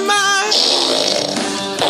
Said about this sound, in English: Put a Windi in your butt, lube it up, stick it in. I'm gonna make this baby fart every time for the win.